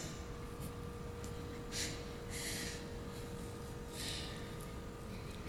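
A medical suction machine clears a child's tracheostomy airway and is heard in a church. It runs with a steady, droning motor hum, broken by several short, wet, hissing slurps. It is fairly quiet, with no voices.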